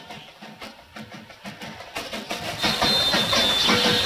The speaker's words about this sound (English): There's the whistle.